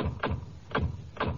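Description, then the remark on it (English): Three solid doors of a Buick Skyhawk sedan thud shut one after another at a steady pace, each a short, deep slam with no talking. “Unless you get the sedan, then it's like this.”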